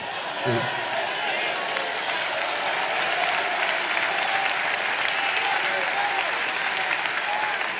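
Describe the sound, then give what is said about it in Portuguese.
An audience applauds Jesus steadily, a dense, even wash of many hands clapping that holds at a constant loudness for several seconds, with a brief voice briefly audible near the start. “Vamos aplaudir Jesus mais forte.”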